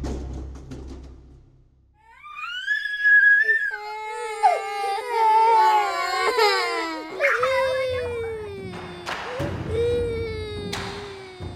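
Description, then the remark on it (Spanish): After a quiet, low rumbling start, a young boy held in someone's arms bursts into loud, sustained wailing and screaming, the pitch rising and breaking in long, piercing cries that continue to the end. “el silencio se volvió un estruendoso llanto y gritos provenientes de …”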